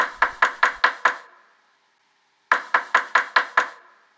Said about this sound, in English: But then a hard knock on the window. Two angry cops having a bad day.